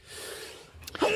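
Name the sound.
sneeze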